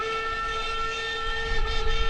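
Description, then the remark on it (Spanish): A train rolls past on a railway in Chile's Atacama Desert with a steady, sustained horn-like tone over broad mechanical noise, and a low rumble swelling louder near the end. No one speaks. “En 1864 se instaló aquí la segunda línea chilena de ferrocarril,”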